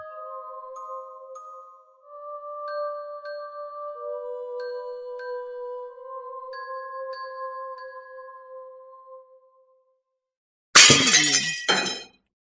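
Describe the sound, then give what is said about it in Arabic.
A long, soft, tonal musical passage fades to silence, then glass suddenly shatters with a loud, bright crash and scattered tinkling fragments for about a second. The glass breaks at midnight in a second-floor study. “في منتصف الليل صحوت على صوت زجاج يتهشأ”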